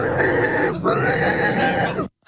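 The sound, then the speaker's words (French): A man imitates a pig's squeal as the winning crier of a pig-squealing contest: two loud, shrill, strained bursts with a brief catch between them, running about two seconds before cutting off abruptly. “Et si vous voulez voir le crieur qui a remporté le concours en pleine action”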